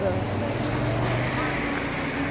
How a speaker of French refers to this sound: Merci les camions Je fais une petite pause volontaire parce qu'a priori quand il y a des gros camions ou des grosses motos qui passent, on m'entend plus du tout.